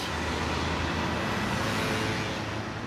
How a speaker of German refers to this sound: Ich bin wirklich gerne hier, wäre da nicht dieser grauenhafte Verkehr. Der Verkehr in Limburg ist irrwitzig.